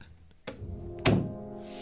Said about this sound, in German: Ähm, also einfach nicht zuschmeißen, nicht ruckartig, sondern einfach die Tür schließen. Und zwar wie ein gut erzogenes Kind, indem ich die Türklinke sogar runterdrücke.